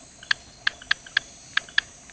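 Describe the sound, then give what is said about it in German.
A frog from Madagascar calling in a quick run of about six sharp, dry clicks at uneven intervals, sounding much like typewriter keys. The calls are fairly clear, with no voices. “Ja, es ist ein Frosch. Der ein lebt Frosch. Auf Madagaskar.”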